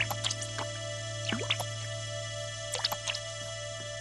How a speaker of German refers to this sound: Plötzlich hat Kalli nasse Füße. Was ist das? Wasser im Schiffchen? Kalli beginnt das Wasser aus dem Boot zu schöpfen.